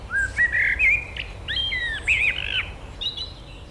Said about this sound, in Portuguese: Este é, este é o melro que está a cantar.